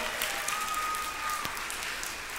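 An audience claps together for a participant who has just handed out bags of fish crackers and did a great job. A dense, steady burst of applause holds at an even, moderate loudness for a couple of seconds, with no voices standing out.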